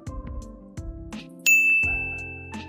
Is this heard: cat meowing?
no